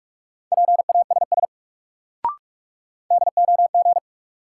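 Rapid Morse code at 45 words per minute in a steady mid-pitched tone, two bursts of short and long beeps spelling a word from a drill of the top 400 words, split by a gap with a single sharp click.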